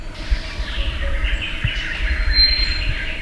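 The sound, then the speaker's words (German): A steady hum of ambience in the Kakamega rainforest in western Kenya, near the border with Uganda, home to nearly 400 bird species, with faint birdsong and an occasional thin chirp over a continuous low rumble, with no one speaking. “Ein grünes Paradies, in dem fast 400 Vogelarten zu Hause sind.”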